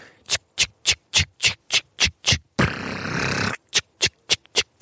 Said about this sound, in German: wer hat's erkannt? Rasensprenger, richtig.